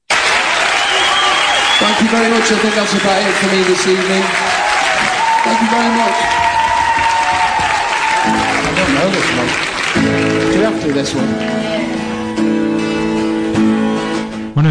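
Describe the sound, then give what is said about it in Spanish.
Loud, sustained applause from a crowd for a book recommendation, a dense steady crackle of clapping lasting the whole stretch, with voices shouting and cheering over it. “ese podría ser nuestro aplauso por la recomendación, desde luego.”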